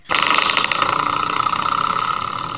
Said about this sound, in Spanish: Muy bien, bueno, este es el sonidito, efectivamente. Ya saben que hay un, un resorte en la puerta ahí abajo para que la puerta pues no dañe de repente las paredes con la chapa. Ponen eso ahí y este es el resortito que ustedes saben.